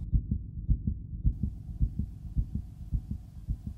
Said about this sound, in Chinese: 他的心脏砰砰跳着。